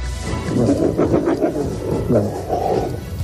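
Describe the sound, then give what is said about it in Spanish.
Several Iberian wolves of a pack at the Centro del Lobo Ibérico Félix Rodríguez de la Fuente in Robledo de Sanabria growl and snarl at close range as they surround Dakota, a wolf eating a piece of meat on the ground, trying to take it; a continuous rumbling with overlapping rises and falls, fairly loud and unbroken for a few seconds. “En este momento Dakota tiene un trozo de carne que está comiéndose en el suelo y otros lobos la rodean intentando quitárselo.”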